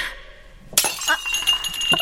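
A cup drops and shatters with a sudden loud crash, then glass fragments clink and skitter for a second or so. No one is talking.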